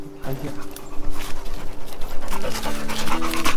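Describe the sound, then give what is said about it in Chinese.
Dingdang, a dog leading the way on a steep mountain trail in Yunnan, pants steadily in quick, rhythmic breaths that stay fairly loud throughout, with a faint murmur of human voices underneath. “前面是我们的叮当犬在开路，”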